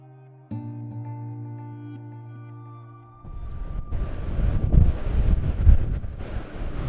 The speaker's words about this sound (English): It's very windy out here today